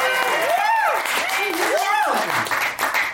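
A live audience applauds steadily with dense, continuous clapping, while rising-and-falling whoops and cheers ring out over it. The applause stays loud throughout and eases slightly near the end.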